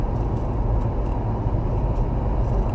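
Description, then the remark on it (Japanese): A steady, deep rumble of engine and road noise from inside a moving car, continuous and fairly loud throughout, with no voices. “今日はちょっと活動の日なので車の運転をしながら初めて収録しています”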